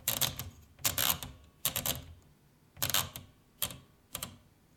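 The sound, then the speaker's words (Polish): A typewriter platen is turned by one of the knobs on its right and left sides in six short bursts, each a quick run of crisp ratcheting clicks separated by brief pauses, with no voices. “Wałek obraca się za pomocą gałek umieszczonych po prawej i lewej stronie, a także za pomocą wierszownicy.”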